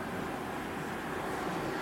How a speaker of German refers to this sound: Und was wir hören, ist nicht die Motorengeräusche. Ne? Was wir hören, ist ja, wirklich nur der Abrieb von Reifen auf nasser Straße.